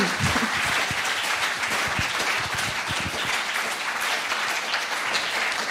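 A crowd applauds steadily, a dense wash of many hands clapping at an even, fairly loud level for several seconds without pause or voices.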